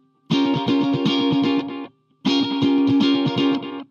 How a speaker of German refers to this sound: Gegen Ende kommt eine gedoppelte Ukulele rein, die macht halt dieses und bringt da halt auch nochmal krass viel Rhythmus rein.